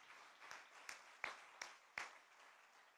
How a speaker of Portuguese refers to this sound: Uou, vamos dar uma salva de palmas ao Senhor, amém?